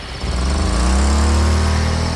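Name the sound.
car engine starting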